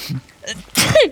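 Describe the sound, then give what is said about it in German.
A single loud sneeze: a brief breathy intake, then a sharp burst that trails off into a falling voiced tail. “Gesundheit.”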